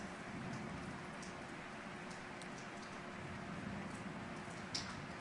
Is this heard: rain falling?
yes